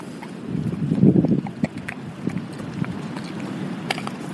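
A dog eating a treat: soft, irregular crunching and clicking chews over a muffled, rustling background, with no one speaking.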